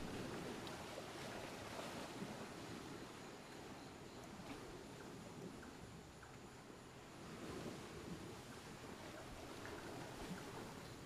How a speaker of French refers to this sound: L'écume tiède se brise sur le sable chaud.